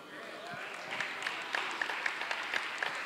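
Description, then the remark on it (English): An audience claps steadily during a sermon, many hands producing a dense patter of sharp slaps with a few louder accents, while voices murmur faintly beneath the applause. “Did you, did you hear what I, I'm preaching louder than you clapping.”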